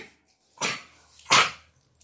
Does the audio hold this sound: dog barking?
yes